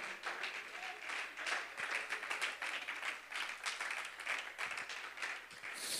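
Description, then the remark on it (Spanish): A church audience applauds the presence of God during a morning service, a dense wash of many hands clapping at a lively, even level throughout, with no voices standing out above it. “Alguien bendice la presencia de Dios y lo puede aplaudir con regocijo en esta mañana.”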